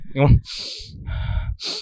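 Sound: imitated sharp gasp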